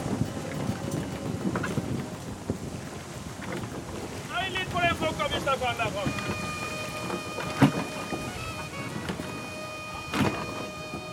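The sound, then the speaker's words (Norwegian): Steady strong wind rushes over a sailing ship at sea outside Torungen, with sea noise underneath, while creaking, whistling tones rise from the rigging midway and a couple of sharp knocks cut through. “Kan vi, heller, kan vi heller ligge og leke oss litt på innsida av Torungen, hvor ikke det er så mye sjø og så mye vind.”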